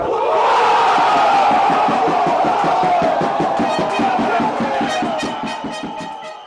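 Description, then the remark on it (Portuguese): A huge football crowd at a Champions League match erupts in a loud, sustained roar of cheering after a goal from a full-back's first-time shot, voices blending into a dense wall of shouting with rhythmic chanting pulses, easing slightly near the end. “O grito do golo foi uma explosão imensa.”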